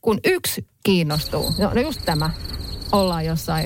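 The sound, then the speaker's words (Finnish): A steady, high-pitched grasshopper chirring runs unbroken through the whole stretch, a thin continuous buzz sitting under people talking in the foreground. “Miesrintamalla kuuluu vaan semmoisia heinäsirkan sirittely, sirittelyääniä.”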